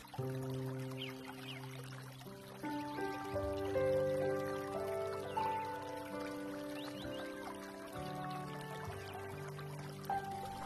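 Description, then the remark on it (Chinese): Steady trickling, babbling water of a clear stream along a path down a mountain runs throughout, blended with soft sustained musical tones and gentle chords; no one speaks. “继续下山，沿着美丽清爽的小溪。”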